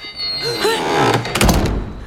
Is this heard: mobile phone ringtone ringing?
no